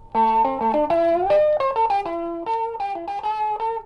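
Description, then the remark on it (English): An electric guitar plays a steady run of sustained notes and chords through a Vox wah pedal with the foot rocked back, giving a mellow, rounded tone. It is moderately loud, and there is no talking. “As the foot is rocked back, the sound becomes mellow.”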